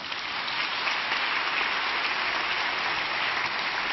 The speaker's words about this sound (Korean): 소금과 빛이 되라는 말씀으로 이재훈 목사님 말씀 선포하겠습니다. 박수로 환영해 주시기 바랍니다.